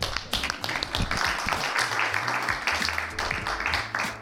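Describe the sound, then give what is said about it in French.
A crowd applauds itself steadily for several seconds at the end of an event, dense overlapping hand claps forming a continuous wash of sound, moderately loud, with faint voices mixed in. “Vous pouvez tous vous applaudir parce que tous étaient très sérieux.”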